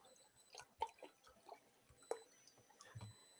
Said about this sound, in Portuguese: depois de falar isso, vai até tomar uma pra molhar a garganta. Uma água, viu? só pra deixar claro.